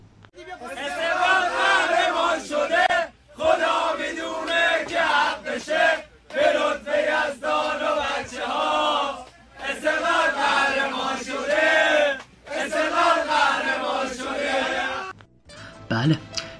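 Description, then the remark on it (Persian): A large crowd of Esteghlal football fans chants an Esteghlal anthem together in loud, rhythmic bursts, pausing briefly between phrases before roaring back in, the massed voices filling the space. “هر همین راستا هم بریم یه سرود از برابچه های استقلال بشنویم و برگردیم”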